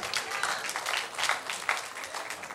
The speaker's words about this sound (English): Come on, you can clap your hands and say hallelujah.